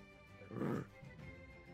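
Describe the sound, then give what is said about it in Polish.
A person gives one short, throaty growling roar in imitation of a bear, lasting about a third of a second, followed by quiet murmuring. “Mm, najpierw tak ten, na tego co na mnie się patrzy, to tak ryczę.”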